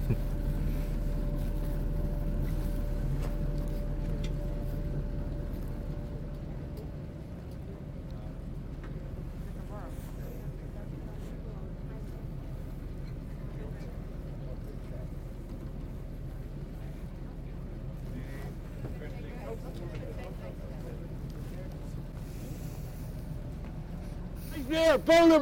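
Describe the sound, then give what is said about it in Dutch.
A boat engine drones steadily, a continuous low rumble with faint wind noise, holding for the whole stretch before a voice briefly cuts in at the very end. “laat je langzaam in slaap sussen door het ronkende geluid van de motor.”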